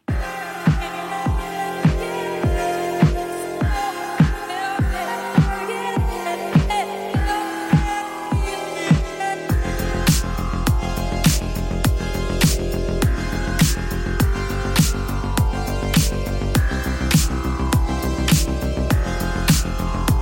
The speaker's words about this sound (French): c'est le son du jeu vidéo Fury.